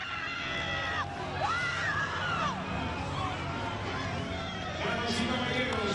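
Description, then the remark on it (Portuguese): A stadium crowd at the athletics stadium of the 2019 Pan American Games in Lima applauds Andressa Moraes's final throw steadily, with loud cheers and high-pitched shouts rising and falling over the continuous roar for the full six seconds. “Aplaudida pelo público que acompanha neste momento o seu último lançamento no estádio do atletismo no PAN de Lima 2019.”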